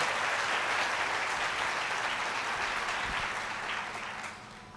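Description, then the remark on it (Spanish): An audience claps for God in sustained, dense applause, a steady wash of many hands that stays loud throughout and eases slightly at the very end. “Dale un aplauso fuerte a Dios para que ya no siga afligido.”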